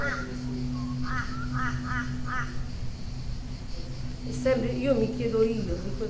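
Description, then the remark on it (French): Crows caw in a quick series of harsh calls, then call again more loosely later on, over a steady low hum and rough outdoor background. “Les corneilles sont toujours là. Personne ne les a évacuées.”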